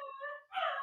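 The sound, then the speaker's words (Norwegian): A dog howls in two drawn-out, tonal wails with a brief break between them, the second louder and rising, as a fire engine drives past. The sound is clear, with no talking. “Så da skal Siko hjelpe hele blokka oh, med å ule.”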